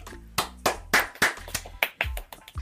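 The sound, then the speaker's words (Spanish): Applause in tribute to Don Octavio Sufán, presenter of the Titanes del Ring wrestling show, in a steady rhythm: about nine sharp hand claps roughly a third of a second apart, crisp and moderately loud, with no voices over them. “A don Octavio Sufán, el gran presentador de los Titanes del Ring, un aplauso y un abrazo al cielo, querido maestro Titán, también para usted.”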